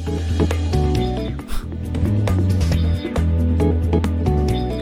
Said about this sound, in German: Weil das, ich weiß nicht, was das ist, eine Orgel wahrscheinlich? Äh, ich finde, die klingt ein bisschen flacher als im Original. Ja, das klingt so orgelig. Aber halt mit null Hall. Also einfach so eine MIDI-Orgel quasi.